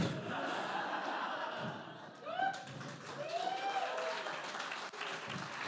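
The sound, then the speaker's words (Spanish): An audience claps steadily and densely for several seconds, the applause holding at an even level, with a few brief rising whoops and laughs breaking through near the middle. “No sé por qué aplauden si sí me metieron al bote.”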